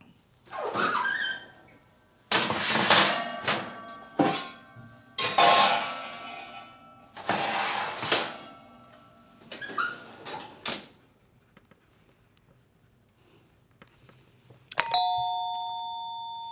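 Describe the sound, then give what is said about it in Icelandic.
A metal baking tray scrapes and clatters as it is slid into an oven, with several loud clanking bursts, then a final sharp metallic clang that rings briefly. No one speaks. “vegna þess að það verða að setja bökunarplötu inn í opn”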